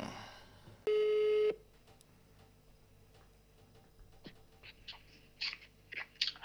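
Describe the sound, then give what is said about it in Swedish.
A phone call being placed to a club's engagement manager: a single loud, steady ringing tone lasts about half a second, followed by quiet line noise with faint clicks and ticks. “jag ringer upp och så ser vi vad hon”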